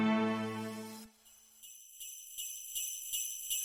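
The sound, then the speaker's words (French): Bright, high-pitched Christmas bells ring out in a steady, repeating rhythm, each strike shimmering over the last, following a short swell of low tones at the start. No voices. “Vous entendez ces cloches C'est Noël qui approche.”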